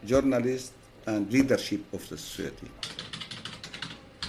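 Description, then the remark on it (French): Quick, irregular clicks of a young man typing on a computer keyboard at a desk run steadily, with a voice talking over the first part before the keystrokes carry on mostly alone. “Sur le bureau d'en face, un jeune homme est concentré sur son ordinateur.”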